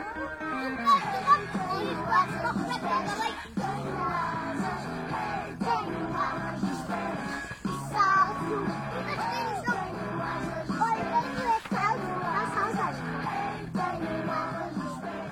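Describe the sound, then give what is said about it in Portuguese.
A lively group of children aged 3 to 5 playing and chattering while exploring nature outdoors at Quinta das Conchas in Lumiar, with overlapping high voices, occasional shouts and laughter, continuous throughout. “Acabámos de ouvir crianças entre os 3 e os 5 anos a explorarem a natureza ao som da música que mais gostam, a brincar, que é como se aprende melhor.”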